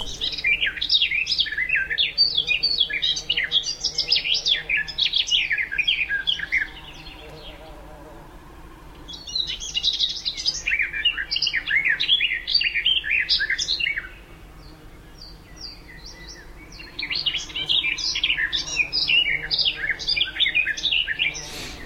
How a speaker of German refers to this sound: Ja, da schwätzt sie so vor sich hin. Klingt so ein bisschen ähnlich wie wenn die Mönchsgrasmücke anfängt zu singen, dann schwätzt sie auch so vor sich hin. Aber dann kommt es ja bei der immer so ein bisschen melodiöser.